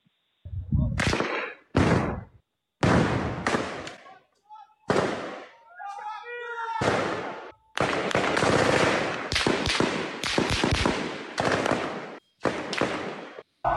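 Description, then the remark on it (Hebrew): Repeated bursts of gunfire crack out in rapid, uneven volleys, some sustained like automatic fire, loud with echoing tails; faint voices are audible between the bursts. An exchange of fire inside the Jenin refugee camp during a wide-scale Israeli army operation. “כן, אלו חילופי האש מתוך מחנה הפליטים.”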